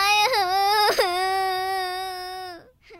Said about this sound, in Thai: เอ๊ะทำไมเด็กคนนั้นยืนร้องไห้อยู่ล่ะเเป็นอะไรไปหรอ ลูกโป่งของหนูขึ้นไปติดบนต้นไม้